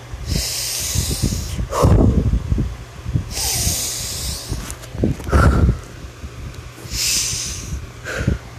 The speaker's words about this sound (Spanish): Y ahora, antes de concluir, bueno, en conclusión les daré un ejercicio de respiración, que es de la siguiente manera.